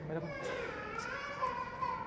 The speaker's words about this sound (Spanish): Hay un niño llorando, ¿no?